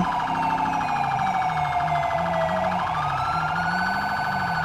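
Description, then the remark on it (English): A loud, continuous emergency siren of a stolen ambulance wails up and down in sweeping pitch glides, steady, with a low engine rumble underneath and no voices; the ambulance is speeding at about 100 miles an hour in Los Santos. “Uh, I have a 1080 on a stolen ambulance. He's going about 100 miles an hour in Los Santos.”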